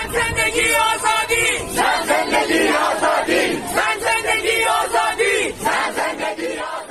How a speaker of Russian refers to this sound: «Женщина, жизнь, свобода!» – скандирует толпа. Эта фраза стала основным слоганом,